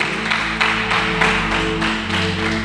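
A crowd applauds steadily with dense, rhythmic clapping surging in regular waves, while sustained low organ-like tones hold underneath throughout.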